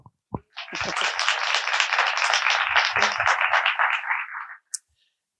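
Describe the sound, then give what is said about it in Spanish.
A crowd applauds in a dense, steady burst of many overlapping claps that holds for about four seconds, then fades out, with a couple of isolated sharp clicks around it. “Aplaudir mientras paso página.”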